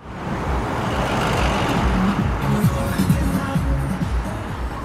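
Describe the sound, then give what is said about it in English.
Steady street traffic on 17th Avenue Southeast, also known as International Avenue, rumbles past, with cars, trucks and buses blending into a continuous loud roar of engines and tires, a faint murmur of voices mixed in. “Those are cars, trucks, buses.”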